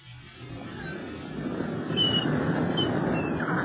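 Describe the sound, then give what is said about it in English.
A few faint, high mewing seagull cries drift in at scattered moments over a steady, rushing background like wind or surf, with no voices present. “Go away, go away, you seagulls.”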